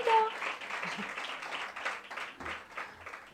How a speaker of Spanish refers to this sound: Venga, súbete. le damos un aplauso y sube, ¿te parece?